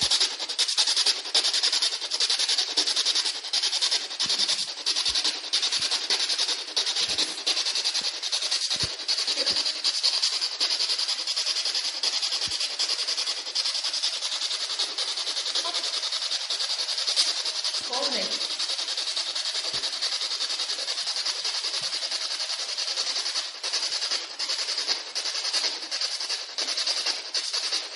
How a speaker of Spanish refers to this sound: tras encenderla y escuchar el ruido en blanco